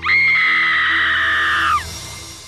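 A woman in a basement lets out one loud, sustained high-pitched scream, holding steady for nearly two seconds before breaking off with a slight downward slide, followed by quiet.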